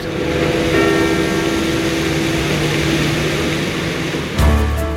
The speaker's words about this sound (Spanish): Las campanas están sonando a esta hora, campanas de duelo por la muerte de Benedicto XVI, por la muerte del cardenal Ratzinger.